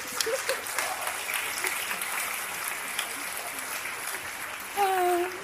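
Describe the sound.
A crowd applauds steadily, a dense wash of clapping that holds at an even level throughout, with a brief tonal voice or whistle rising near the end.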